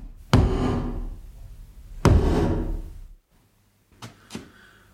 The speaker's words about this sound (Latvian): Viņa paņem vāli un sit pa dēli divas reizes kā valdniece.